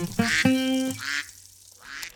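A duck quacks three times, fairly loud: a short nasal quack, a longer drawn-out one, then a fainter, briefer call at the end, with no talking.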